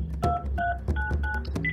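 A quick series of electronic keypad tones as a phone number is hurriedly dialed on a mobile phone, with several short bright beeps at different pitches and brief gaps between them, over a low background hum.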